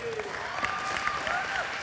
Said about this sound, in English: Hey, let's give, uh, let's give all the fathers a round of applause.